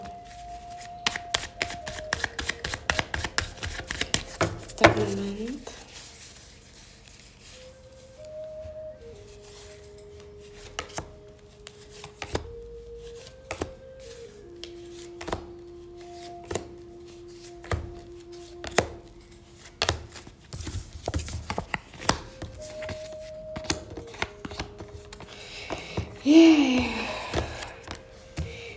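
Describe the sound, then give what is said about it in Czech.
Tarot cards being shuffled during a tarot reading, with repeated crisp riffling clicks and soft snaps over a low sustained musical drone, no talking. “Já už se dívám na vaši fotku, míchám u toho karty a my se spolu podíváme, co nám Tarot poví o vás dvou.”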